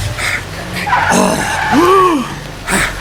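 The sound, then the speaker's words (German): A car brakes hard on a street when a boy runs directly in front of it, tires squealing in a sharp skid with a rising and falling screech over engine rumble, loud, ending in a brief burst of noise. “der Junge ist mir direkt vor den Wagen gelaufen.”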